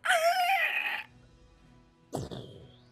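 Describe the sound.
A voice imitates the dying cry of a gigantic boar: a loud, strained, squealing wail for about a second, a short pause, then a rougher, raspy grunting burst that trails off.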